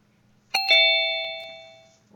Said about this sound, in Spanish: Ay, la, chica chicharra me pega unos sustos. Ya no soporto, ¿eh? esta que le llaman la guillotina, que nos, nos corta las palabras, la inspiración y todo nos corta, todo nos, corta.